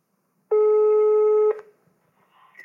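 A single steady ringing tone of an outgoing telephone call sounds loudly for about a second, then cuts off as the call connects, leaving a quiet line with faint rustling and a brief tonal blip.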